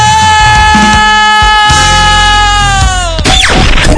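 A loud, sustained shouted yell, "el grito", held on one high pitch for about three seconds before sliding downward and breaking off, set against a noisy, crashing background.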